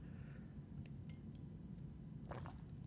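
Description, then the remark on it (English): Faint clinks of a cup, then a short, soft slurping sip of tea over a low steady hum. No one speaks. “Okay, sip of tea, hold on.”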